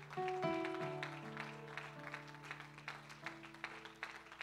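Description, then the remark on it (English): A church audience claps in praise of the Lord during an evening service, a dense, steady wash of many hands with a few sharper rhythmic peaks, while sustained organ or keyboard chords ring underneath throughout. “Can we give the Lord a hand clap of praise here tonight?”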